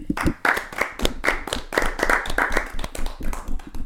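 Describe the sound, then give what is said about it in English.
Live hand clapping: a few seconds of quick, sharp, fairly loud claps in an uneven, steady patter, like several people applauding together, with no talking. “So uh, let's get a live hand clap.”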